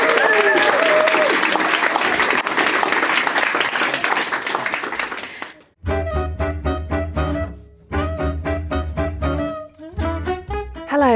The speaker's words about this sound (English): Let's have a huge round of applause